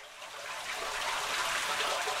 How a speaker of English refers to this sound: In the city, when snow melts and the runoff flows into storm drains, that water winds up in the sewer system. And all that salty water can corrode the city's subterranean network of pipes.